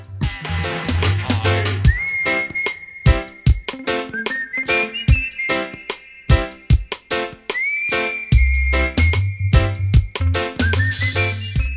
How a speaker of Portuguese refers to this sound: E é uma música que possui também um assobio bem marcante, né? No meio da música.